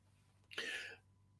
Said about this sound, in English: We've got a cough now.